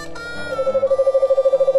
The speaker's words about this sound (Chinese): 猫头鹰从树枝上探出头来， 那可太糟糕了！呼呼呼，那我就搬走。